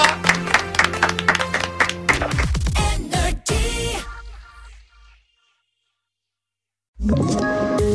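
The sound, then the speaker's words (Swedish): A loud burst of clapping and applause over a musical backdrop for about four seconds, fading into silence before a short music sting starts. “En applåd”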